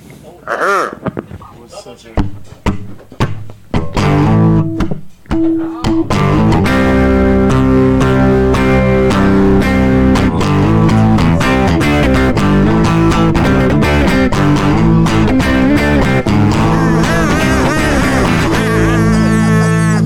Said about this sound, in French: Euh, jouer de la musique.